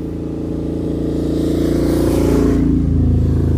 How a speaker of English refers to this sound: That was a motorbike. Doppler effect.